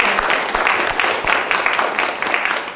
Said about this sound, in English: Hey, you know what we should do? We should just give everybody a round of applause.